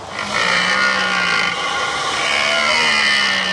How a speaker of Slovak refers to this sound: Možno teraz taká aktuálna, tá jelenia rúja u nás, takže môžeme skúsiť toho jelenia.